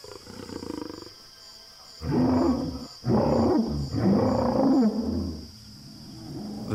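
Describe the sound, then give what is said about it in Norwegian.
A deep, rumbling roar, the first mating call of the young Allosaurus Big Al after picking up a female's scent, comes in three loud, drawn-out bursts with short gaps between them, low and guttural, over a faint steady background hum. “Dung left by a female Allosaurus has an immediate effect on Al, and for the first time in his life, he issues a mating call.”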